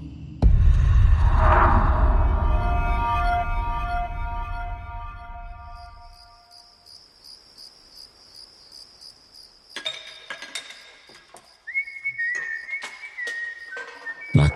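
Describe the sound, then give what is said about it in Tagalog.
A loud droning hum fades out, leaving a steady high chirping like an insect. A thin whistled tune then enters, moving between a few held notes, clear, with no talking: a man whistling while repairing a broken electric fan on a terrace. “sa parang palabas na yon na nagkukumpuni ng isang sirang electric fan sa terrace nila habang sumisipol-sipol.”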